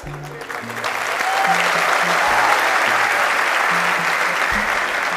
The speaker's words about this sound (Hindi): yes और no देख लो कितने सारे लोगों की आवाजें आई है